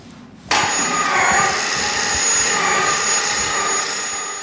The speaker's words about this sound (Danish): Og mens den tons tunge trykdør lukker